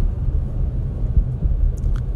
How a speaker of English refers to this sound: I'm going down the road right now, and you know, there's pretty good traffic this morning